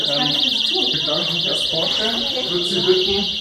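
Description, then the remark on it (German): A loud, continuous electronic alarm, sounded by a crisis responder during an evacuation drill, warbles rapidly and steadily in a high pitch throughout, while people talk underneath it. “Der Krisenhelfer im Tracking-Anzug gibt Alarm, damit die Urlauber gewarnt sind.”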